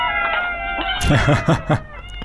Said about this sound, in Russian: Это что-то необъяснимо мяукающее. Кстати, ну, я догадываюсь, что это может быть необъяснимо мяукающее.